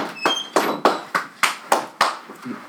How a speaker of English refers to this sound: Now we clap. No, clap it.